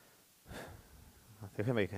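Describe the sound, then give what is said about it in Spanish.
A single audible, soft intake of breath, taken to calm down, followed by a short pause before a man's voice begins speaking. “tomo respiración porque me quiere dar coraje.”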